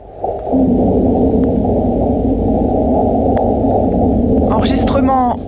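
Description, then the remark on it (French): A sustained, loud low rumble with a dense, wavering drone, ending in a brief burst of higher, chirping tones: seismometer recordings of a meteorite impact on Mars, sped up into audible sound. The impact caused magnitude 4 tremors and left a crater 150 metres wide and 20 metres deep. “tenu en accélérant les vibrations collectées par le sismomètre.”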